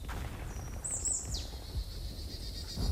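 A bird sings high, clear whistled notes with a brief sliding phrase, then a thin sustained tone, over a steady low outdoor rumble with no one talking.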